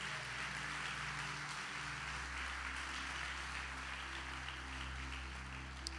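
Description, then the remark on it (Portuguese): An audience applauds God once more with dense, steady clapping that holds at an even level for about six seconds, while a low, sustained musical tone hums underneath. No one speaks. “Você pode aplaudir a Ele mais uma vez?”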